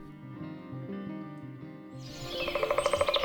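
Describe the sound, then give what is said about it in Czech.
Birds chirp in a quick, rhythmic series of bright, repeated calls, coming in over a sustained musical tone that plays alone for the first couple of seconds. “Chybí ti čerstvý vzduch a ptačí cvrlikání?”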